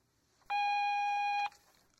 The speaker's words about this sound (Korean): 삐소리 후 메모 남겨주시면 연락드리겠습니다.